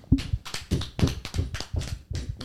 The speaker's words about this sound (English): G- gentlemen, round of applause for ourselves. Clap it up.